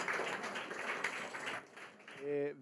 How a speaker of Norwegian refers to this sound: Vi må ta en applaus for eh, de vi skal takke av.